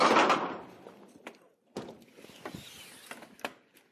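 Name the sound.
door being closed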